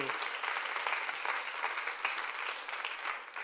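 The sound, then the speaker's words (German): Steady applause from an audience, a dense wash of many hands clapping at an even loudness throughout, with no one speaking over it. “Ihr habt eine und ihr paar Klatsch mal, hey.”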